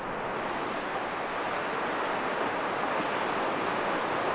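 Sea waves washing onto the shore make a steady, broad roar of surf that holds at an even level throughout, with no distinct crashes standing out and no voices.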